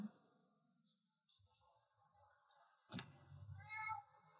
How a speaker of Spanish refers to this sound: Mi gato no para de hablar.